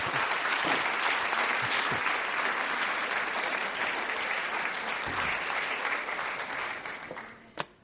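A crowd applauds steadily for several seconds, a dense wash of clapping that holds level and then tapers off near the end, with a single sharper clap standing out as it fades.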